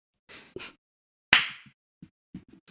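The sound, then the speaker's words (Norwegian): A single loud, sharp hand clap with a brief ringing tail, surrounded by a few softer shuffling and knocking noises before and after. “Ok, Så klapper vi igjen, og da du, stiller du spørsmål.”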